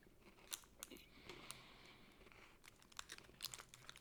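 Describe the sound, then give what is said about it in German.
Someone bites into a chocolate bar and chews it, with a scattering of crisp, crackly crunches spread irregularly over a few seconds. No one speaks. “Den ich, muss ja noch mal, ich muss noch mal, ich muss nochmal abbeißen.”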